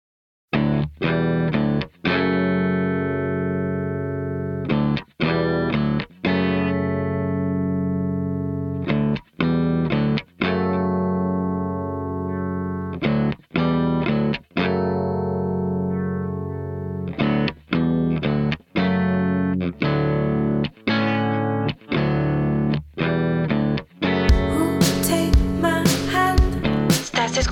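A music track played on the radio program Sintonía Terciopelo on Radio Estridente, with heavy, distorted guitar chords ringing out in steady blocks, broken by brief regular stops, building into a noisier, crashing cymbal-filled stretch near the end. No one speaks.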